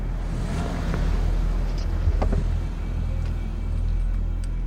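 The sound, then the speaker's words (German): Steady low rumble of car engines idling and moving on a mountain pass road near Zernez by the Swiss National Park, Switzerland, where onlookers in the cars film a bear with their phones; a few faint higher clicks and tones over the constant traffic drone; no speech. “Aus den Autos heraus filmen Schaulustige den Bären mit ihren Handykameras.”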